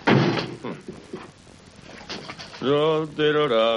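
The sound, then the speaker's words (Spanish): A woman closes a door: a burst of scraping and a few knocks, then a long, drawn-out creak from the hinges. No voices. “Cierra la puerta, pero se queda dentro sin que él se dé cuenta.”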